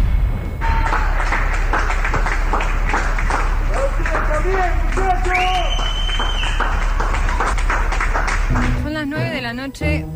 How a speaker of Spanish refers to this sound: Argentina aplaude en todo el país como reconocimiento al trabajo de todo el sistema de salud.